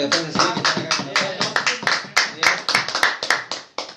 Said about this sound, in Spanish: fuerte el aplauso para los chicos